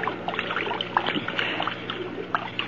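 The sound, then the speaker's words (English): Water trickles and splashes steadily in a shallow stream, a continuous burbling with small irregular splashes and drips, moderately loud, with no voices. “We'll leave him by the edge of the stream, face down in the water.”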